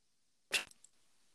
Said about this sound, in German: Oh nee, wir haben wieder Rotzqualität. Scheiße, hör auf zu reden. Ich höre nur Knallen. Ich höre nichts.